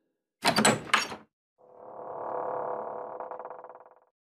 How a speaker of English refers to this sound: As everyone nods in agreement, the front door once more begins to open.